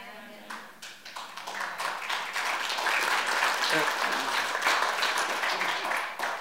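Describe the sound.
A church audience breaks into applause, many hands clapping in a dense, sustained patter that swells after a second and holds steady and loud, with a faint voice briefly audible underneath.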